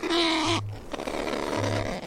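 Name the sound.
kakapo parrot call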